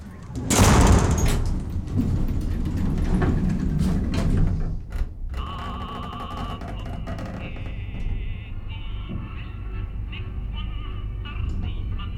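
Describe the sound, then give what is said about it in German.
A heavy elevator sliding door rumbles open with a loud mechanical rush, followed by a steady low hum and faint whirring tones as the elevator car runs a long way down beneath Antarctica toward an underground railway. “Der Aufzug braucht ja ewig.”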